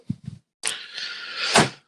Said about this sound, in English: Thank you for closing the door.